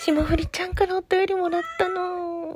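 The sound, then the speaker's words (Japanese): A cat meows in the background while a woman talks, its drawn-out, whiny cries rising and falling close together and partly mixing with her voice. “背景に猫が泣いていてすいません。”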